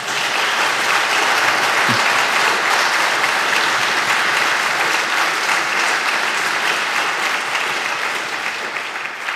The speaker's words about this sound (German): Große Freude und Applaus.